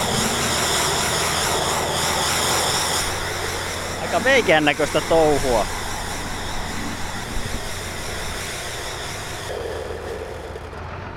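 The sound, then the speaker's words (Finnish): A bale wrapper on a field lifts a hay bale onto rollers and spins it while wrapping plastic around it, with a steady, droning mechanical hum and engine-like whir throughout, while a man briefly speaks over it. “Ja sitten, sitten nostetaan paali tuommoisten rullien päälle ja siinä se paali pyörii ja muovia lähdetään käärimään sen ympäri.”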